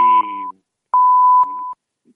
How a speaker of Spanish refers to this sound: Las señales horarias suenan por de, ellas solas.